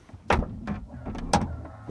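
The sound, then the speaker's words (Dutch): A Microlino car's seatbelt is drawn out with a quick zipping slide, then clicks sharply into its buckle, fairly loud in a quiet cabin, with no talking. “Gordel om.”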